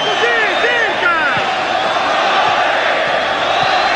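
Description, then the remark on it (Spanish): A large football crowd of Sporting Cristal fans roars as they do a stadium wave during a match against Universitario, with several rising whooping shouts in the first second over a loud, steady wall of cheering that continues throughout. “Gritos de ola por los hinchas de deporte Cristal.”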